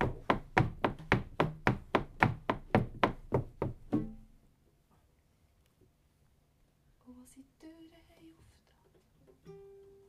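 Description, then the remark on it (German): A quick, steady run of about a dozen loud knocks on the wooden door of a small hut at the edge of a forest lasts roughly four seconds, then fades to near silence before faint, murmured voices and rustling follow. “Und so hat er gesagt, dort beim Waldrand hinten hat so ein Hütchen, dort können wir auch noch klopfen.”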